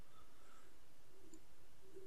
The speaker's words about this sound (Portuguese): Eu tô escutando uns passarinhos aqui, mano.